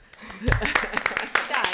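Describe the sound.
A handful of sharp, irregular hand claps ring out over overlapping voices, welcoming someone to the table, some claps louder than others, spread unevenly across the short moment.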